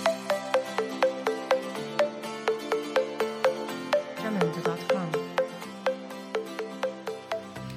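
A school recess bell rings, a bright electronic chime repeating quick, evenly spaced tones in a steady melodic pattern for several seconds, moderately loud, with no voices.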